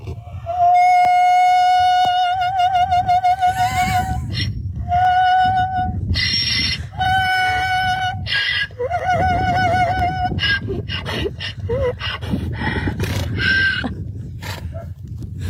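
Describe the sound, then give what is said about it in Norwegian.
An Irish donkey named Harriet, in a video shared by BBC Earth, brays in long, sustained tones with a wavering, vibrato-like quality, almost like operatic singing, hitting a G, repeated several times in loud bursts over a rough, noisy background. “Altså, nå skal vi høre eh, det irske operasyngende eselet Harriet, som eh, gjør en G og nærmest perfekt vibrato.”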